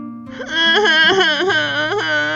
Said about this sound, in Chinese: 布谷看了，难过的都要哭了。